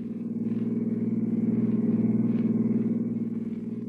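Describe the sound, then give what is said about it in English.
A car engine drones steadily with a low, throbbing hum, as if heard from inside while the car is driven out of the city along the Skyline Drive, high over the sea, as it gets dark, holding an even, moderately loud level throughout with no voices. “toss your luggage into the back of her car, swing out of the city and wind your way along the lonely Skyline Drive, high over the sea.”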